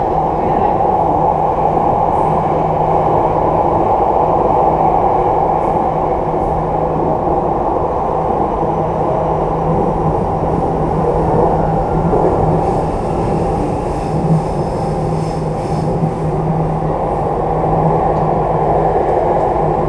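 A Jakarta MRT subway train in Jakarta, Indonesia, rides along with a steady, loud low rumble and hum, a sustained tonal drone, and a faint high-pitched whine rising partway through, with no talking.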